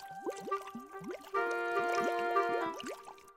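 Sulphurous thermal spring water in Bad Gögging bubbles up in a steady series of gurgling pops, about three or four per second, moderately loud, with a sustained humming tone joining in midway.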